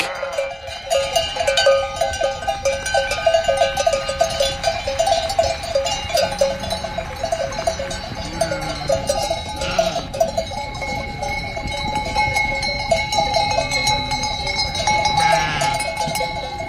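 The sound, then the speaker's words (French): Many bells on ewes and cows clank and jingle continuously in an irregular, overlapping jangle, steady throughout, with faint animal bleats and outdoor background, no talking; the animals give milk used to make cheese. “Mais en tout cas, on a écouté les cloches euh, des brebis et des vaches euh, qui donnent le bon lait qui sert à faire du fromage”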